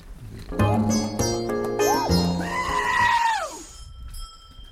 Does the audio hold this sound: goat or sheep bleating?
yes